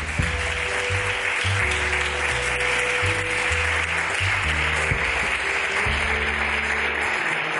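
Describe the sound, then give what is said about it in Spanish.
Steady, dense applause from a crowd at a night-time religious gathering, applauding the body of Christ, fills the whole stretch, holding an even loudness, with sustained keyboard or bass notes playing underneath and changing chords every second or so. “¿Quién aplaude al cuerpo de Cristo en esta noche?”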